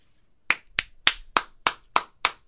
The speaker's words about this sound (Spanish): ¡Aplausos! ¡Bravo! Por esta nota.